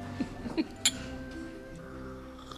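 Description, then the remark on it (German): A single bright clink of glasses touching in a toast with a homemade spiced orange drink rings out, brief and clear, after a couple of soft knocks, with a faint background hum. “Zeit zu probieren. Also zum Wohl.”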